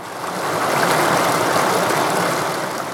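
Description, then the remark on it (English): A steady, loud roar of rushing floodwater from a creek swollen by unprecedented regional rainfall in mid June, a dense continuous wash that holds constant throughout with no voices or breaks. “Students recorded their sound during unprecedented regional rainfall in mid June.”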